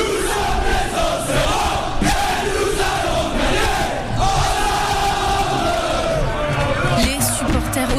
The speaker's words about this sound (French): Ça fait 17 000 Auxerrois prêts à donner de la voix.